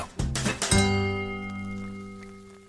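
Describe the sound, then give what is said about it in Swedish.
Glasses clink together in a toast, two or three quick taps followed by a clear, sustained ringing tone that slowly fades. The sound is fairly loud, with no talking. “Skål!”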